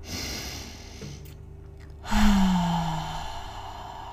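A deep breath in through the nose and a long, audible exhale through the mouth during a guided relaxation breathing exercise, the out-breath ending in a soft, voiced sigh. Fairly quiet, with no talking.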